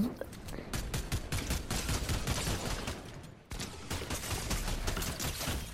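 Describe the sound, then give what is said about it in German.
Rapid bursts of video game gunfire crackle almost continuously, dense and loud, with a brief break midway before the shooting resumes at the same relentless pace. “Digga, er trifft wirklich jeden Schuss.”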